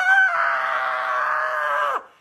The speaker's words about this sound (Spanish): El niño está en el suelo retorciéndose mientras se agarra la entrepierna y grita, ¡Ah!